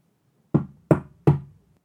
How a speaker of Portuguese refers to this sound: O lobo seguiu em direção à casa do porquinho mais novo, que foi feita com palha. Chegou lá e bateu à porta.